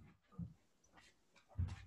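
A dog whimpers quietly in two short, soft bursts about a second apart, with faint breathy noise between them and no one talking.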